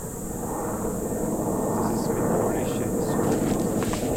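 A military helicopter of the Austrian armed forces (Bundesheer) drones steadily overhead as it crosses the mountains, a continuous low, airy rumble that holds an even loudness throughout, with no pauses or sharp changes.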